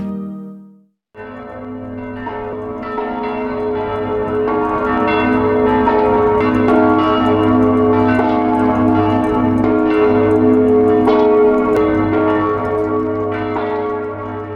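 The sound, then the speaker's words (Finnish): Church bells in the Czech Republic ring out loudly and continuously to mark exactly one year since the country's first COVID-19 death, several bells overlapping in a rich, resonant clangor that sustains without pause, with no voices present. “Kirkon kellot soivat Tsekin tasavallassa merkkinä siitä, että maan ensimmäisestä koronakuolemasta on kulunut täsmälleen vuosi.”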